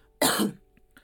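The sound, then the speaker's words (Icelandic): A single loud, harsh cough bursts out and lasts about a third of a second, followed by a couple of faint breathy traces. No one speaks. “Góður hósti hérna.”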